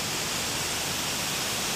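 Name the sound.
waterfall rushing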